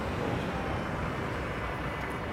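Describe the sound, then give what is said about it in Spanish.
A bus stops and idles outside with a steady, dense rumble and hiss that holds at an even loudness throughout while passengers get off and on, with no voices standing out. “pues, a ver, autobús, baja gente, sube gente, Así que, así que nada.”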